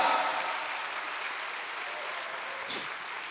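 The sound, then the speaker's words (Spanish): Sustained applause from a church audience giving a round of applause to Christ during a sermon, a dense steady patter of many hands clapping for several seconds with no voices standing out above it. “Dele un aplauso a Cristo, a su nombre, gloria.”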